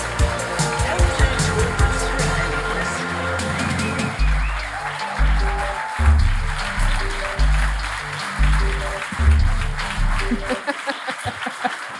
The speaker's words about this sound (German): oder soll ich sagen, jetzt würde ich erstmal sagen, Jingle ab.